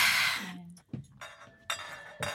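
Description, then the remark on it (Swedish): A wine glass clinks lightly a few times as it is taken out for pouring exactly 15 centiliters of wine, each contact leaving a brief bright ring, with soft handling noises in between. “Nu ska jag ta fram ett glas och du ska få hälla upp exakt 15 centiliter.”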